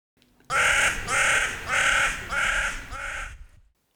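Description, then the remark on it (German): Crows caw loudly, five harsh calls in a steady rhythm over about three seconds, with no talking. “Die Krähen, ja, finden nicht alle lustig.”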